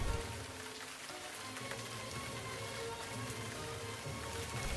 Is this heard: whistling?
no